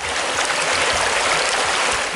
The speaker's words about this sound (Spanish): A la crisis de agua que se vive se sumó una mega fuga, la más grande en los últimos 20 años, que causó la pérdida de 600 litros por segundo en el acueducto de la presa El Cuchillo, en China, Nuevo León, a unos 100 kilómetros al oriente de Monterrey.